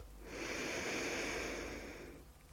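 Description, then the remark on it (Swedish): A single long, deep inhale drawn steadily through the nose for about two seconds during a breathing exercise, filling belly, back and chest, clearly audible, with no talking. “Andas ut, slappna av. Andas in, fyll upp, expansion, mage, rygg och bröst.”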